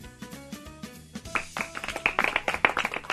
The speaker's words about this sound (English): Polite golf clap.